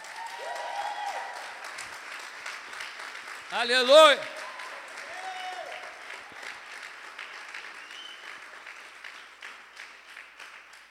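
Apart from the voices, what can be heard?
audience clapping loudly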